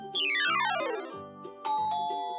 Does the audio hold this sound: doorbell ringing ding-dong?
yes